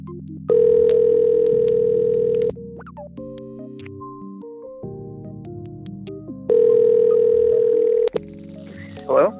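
An outgoing phone call rings back twice, each steady buzzing tone lasting about two seconds with a pause between, loud, while soft tonal music plays faintly underneath.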